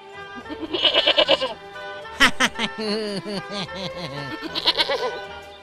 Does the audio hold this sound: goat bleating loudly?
yes